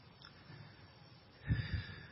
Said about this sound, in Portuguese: Como vocês podem notar, devagarzinho a respiração vai ficando melhor.